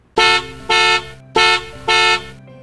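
A sedan's car horn honks four times in a steady rhythm, two pairs of loud, bright, harmonic-rich blasts each lasting about a third of a second, with no voices.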